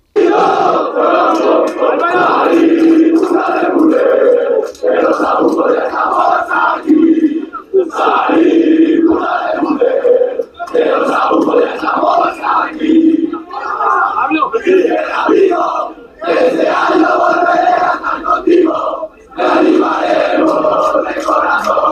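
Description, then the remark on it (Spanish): A crowd of students from a university residence hall chants loudly in unison in Spanish, voices rising and falling in repeated rhythmic phrases with brief pauses between lines, the sound slightly muffled and unclear. “aparecen dos vídeos más con cánticos protagonizados por estudiantes del mismo colegio mayor”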